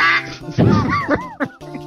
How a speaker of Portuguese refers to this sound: Pato pato, pato morreu? Ah, Quack.